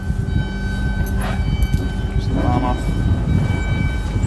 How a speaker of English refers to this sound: Oh my god. Roller shutter doors.